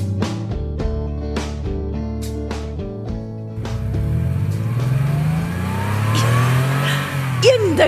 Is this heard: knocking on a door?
no